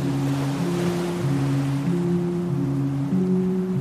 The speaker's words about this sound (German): Wir steuern auf die Küste zu und die Luft wird salziger. Du wirst vom Wind und den Wellen über das Meer getragen. Auf dem Meer ist der Wind frei.